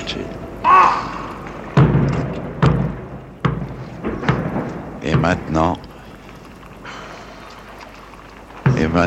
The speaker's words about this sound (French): Maintenant, c'est au son du canon des 90 salves d'artillerie qui vont jalonner ce parcours, ce dernier parcours historique, que Sir Winston Churchill prend congé de ces lieux, de ce petit espace de terre où il s'inscrit à jamais.